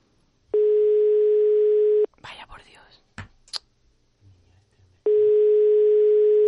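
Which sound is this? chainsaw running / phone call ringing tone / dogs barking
phone call ringing tone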